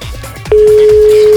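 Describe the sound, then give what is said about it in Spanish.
During a prank call on the Panda Show radio program, the call cuts off as the other party hangs up, and a steady, mid-pitched telephone tone takes over, loud and unbroken, after a brief stretch of muffled background sound. “Siempre llaman dos veces que cuelga el teléfono.”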